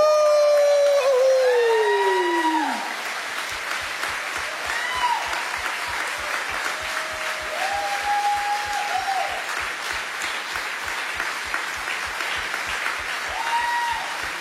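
Loud, sustained applause from a church audience in the hall, given for the church's online participants, with scattered whoops and cheers, a high rising-falling whistle or howl at the start, and rhythmic clapping settling into a steady beat.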